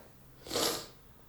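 One short, breathy nasal burst, like a sniffle or a stifled sneeze from a cold, rising and fading within half a second against a quiet background.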